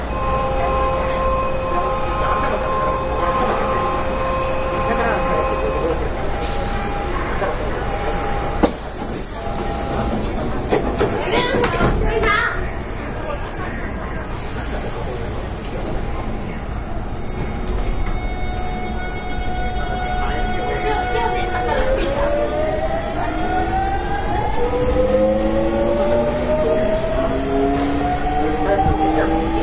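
A Hankyu 8000 series Kobe Line limited express electric train running from Shinkaichi to Umeda, moving steadily with a continuous rumble and hiss, a burst of noise partway through, and rising whining motor tones as it accelerates; no talking.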